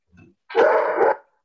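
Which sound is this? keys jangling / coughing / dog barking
dog barking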